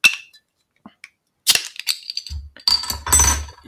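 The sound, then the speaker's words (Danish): A bottle of beer, a cloudy ale, is opened: a sharp metallic clink and a couple of small clicks, then bursts of hissy fizz and rustling handling noise. No one speaks. “Men nu, øh, nu åbner jeg den.”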